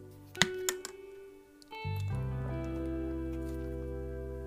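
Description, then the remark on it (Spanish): A quick sip of water: a couple of small wet clicks and a soft swallow, then a steady low hum lingers in the quiet background. “Pero, ay, agua.”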